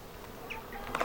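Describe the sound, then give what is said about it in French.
Soft, faint buzzing of bees flying around, with a few brief higher chirps near the end and no voices. “Faites attention, il y a des abeilles qui tournent, il faudrait fermer la, la moustiquaire.”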